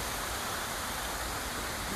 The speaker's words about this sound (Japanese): 本当にちょっと思ったのがこういう水の音をなんか久々に聞いたなというマイナスイオンとかちょっと浴びたいなと